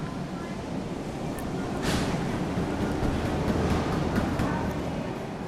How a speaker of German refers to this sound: So geht es in einer Exportverpackungsanlage für Avocados zu. Wir sind in Tancítaro, einem Bauerndorf im zentralmexikanischen Bundesstaat Michoacán.